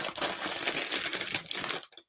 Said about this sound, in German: Also dieses Retro-Gefühl, die alten Tüten aufzureißen, ist schon gut. Sind das alles noch perforierte? Nee, die sind nicht mehr perforiert, aber sind andere Tüten als heute, sind deutlich dünner knistern anders irgendwie.